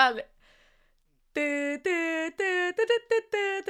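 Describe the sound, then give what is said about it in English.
Someone hums the theme tune of the arcade video game Puzzle Bobble: a brief breathy sound, a pause, then a run of sustained and clipped notes in a bouncy, stepping melody. “And uh, do you remember the music? No, I can't. I'm sure I would if I, I heard it. I'm gonna hum it really badly.”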